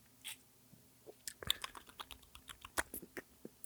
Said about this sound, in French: Je m'excuse pour ces bruits de bouche euh, très désagréables pour les gens qui ont des, bons écouteurs.